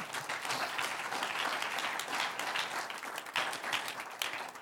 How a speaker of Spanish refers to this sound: Un aplauso al Señor.